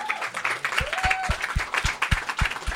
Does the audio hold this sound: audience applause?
yes